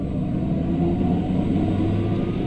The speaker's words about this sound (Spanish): Pero cuando arranca, cuando despega, no importando la altura, lo hace con toda la potencia y además lo único que escuchas es la tracción de las ruedas. Vamos a escuchar esto.